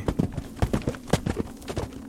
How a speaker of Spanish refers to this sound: Estando a punto de dar el primer paso, escuché un ruido similar al galope de un caballo detrás de mí.